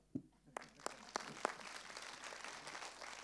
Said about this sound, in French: En revanche, moi j'ai deux bras, deux mains, hein, et on va applaudir.